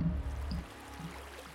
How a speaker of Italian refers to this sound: Acqua